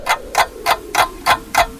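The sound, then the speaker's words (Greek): A clock ticks steadily, six crisp, evenly spaced ticks about a third of a second apart, clear with no voices or other sounds around them. “είναι σαν να σταματάς το ρολόι σου νομίζοντας και ότι ο χρόνος σταματά.”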